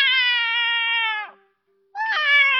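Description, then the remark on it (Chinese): A kitten meows loudly twice as David grabs its tail: a long, steady, high-pitched cry that trails off, a short pause, then a second strained, wavering meow. “快看，大卫抓住了小猫的尾巴，小猫不停的在喊啊啊！”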